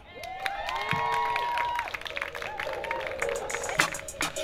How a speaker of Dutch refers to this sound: Lieve mensen, mag ik een applaus voor